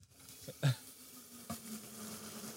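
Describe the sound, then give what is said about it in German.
A soft, steady hiss and sizzle of liquid nitrogen being poured from above into a plastic carafe that looks like a coffee pot, the whole thing steaming, with a couple of brief knocks and clinks near the start and a dull thump midway. “Und wir lernen gerade von oben flüssigen Stickstoff rein und das ganze Ding dampft einfach äh, Lern, lern nochmal, vielleicht hört man was.”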